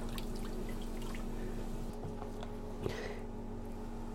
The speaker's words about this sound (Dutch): Aha, dus het is het, is, dus koud water met eh, meel. En daar, daar giet je nu eh, flinke scheut gekookt water bij.